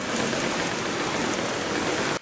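Steady, dense rushing water noise of heavy rain and floodwater flowing through streets and roads, loud and unbroken for about two seconds before cutting off abruptly. No voices.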